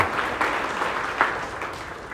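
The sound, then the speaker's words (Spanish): A crowd claps steadily, a dense wash of overlapping handclaps with a few sharper individual claps standing out, sustained throughout, applauding a man on his birthday after a blessing. “Un aplauso para Alfonso.”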